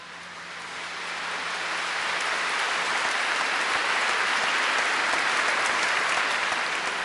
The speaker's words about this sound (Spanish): Así estalló en la catedral un gran aplauso, algo que no habíamos visto antes en un funeral.